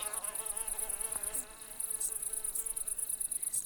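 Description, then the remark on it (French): Dense insect buzzing of flies mixed with a steady, pulsing high-pitched cicada rasp as the cicadas scratch their legs, continuous and fairly loud throughout, with a brief dip midway and no talking. “Pendant que les mouches rouspètent, les cigales se grattent les pattes en signe de colère. Cela fait un bruit atroce.”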